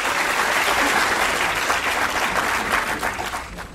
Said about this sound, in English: We'll have another round of applause, please.